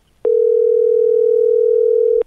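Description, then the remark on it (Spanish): A single steady telephone ringback tone hums loudly for about two seconds while a call connects, then cuts off. No one speaks over it. “No puedes enviar un mensaje y luego no coger el teléfono.”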